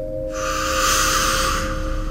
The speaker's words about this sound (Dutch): Er gebeurt iets en mijn lichaam neemt het over, mijn ademhaling neemt het over. Mijn ademhaling gaat langzaam en langzaam uit.